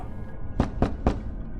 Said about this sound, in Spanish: fueron perturbados por un golpe en la puerta. Esto era extraño, pues primero se tenía que tocar el timbre para ingresar al edificio.